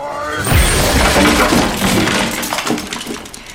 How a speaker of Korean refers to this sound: 채권자들은 상자를 그대로 부숴버립니다.